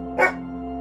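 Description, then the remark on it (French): A dog, Papillon, a hunters' dog, gives one short, sharp bark, a quick bright yap that ends almost as soon as it starts, leaving only a low steady hum behind. Nobody speaks. “papillon est un chien 10 chasseurs Il n'a aucune envie de traquer ni de tuer, il n'y comprend rien, il n'y arrive pas.”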